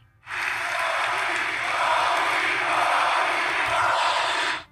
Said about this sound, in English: The crowd erupted in the first of several impromptu chants for Kobe